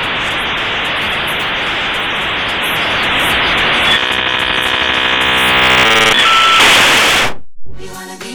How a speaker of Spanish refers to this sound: Y de la mano de la línea telefónica teníamos la conexión a internet con este ruido tan molesto, tan insoportable. insoportable. Vamos a escucharlo un poquito.